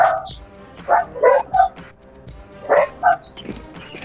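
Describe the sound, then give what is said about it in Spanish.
Small dogs, thought to be the speaker's own pet dogs, bark and yip in short, sharp bursts, several yaps clustered in pairs across a few seconds, with faint background noise and no talking. “Perdón, esos creo que son mis perritos.”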